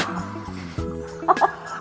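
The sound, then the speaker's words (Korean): A person on the radio show Kang Han-na's Volume Up imitates a crow, giving two short, harsh caws in quick succession near the end, preceded by a low, steady sustained tone. “진짜 까마귀인 줄 알았어요.”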